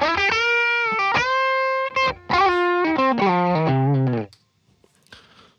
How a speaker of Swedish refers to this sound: Men som sagt, låter även jättebra här, eh, om, man, om man då skulle ta och, eh, och eh, slänga på typ en Tube Screamer på den. Då låter det ju toppen.